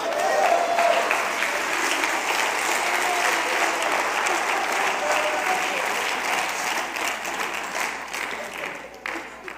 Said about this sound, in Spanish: Alguien déle un aplauso al Señor.